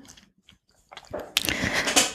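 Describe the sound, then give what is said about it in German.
A chair creaks and crackles, starting after a near-silent moment and swelling into a loud, rough, continuous groaning with no talking. “Mm, naja, ich glaube, das ist mein Stuhl, der so knarrt.”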